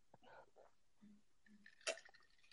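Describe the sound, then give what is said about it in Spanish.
Someone takes a quiet sip of water, with soft slurping and wet mouth sounds, then a brief sharp click like a glass touching lips or teeth. “Ya le estaba dando un, trago a mi agua de drenaje.”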